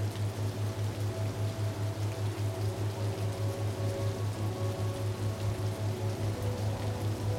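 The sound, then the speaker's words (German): Gently splashing river water flows through a forest at night in icy wind, a soft, steady wash of noise that never lets up, with a faint low hum running underneath and no voices. “Das Plätschern des Wassers ist leise und stetig.”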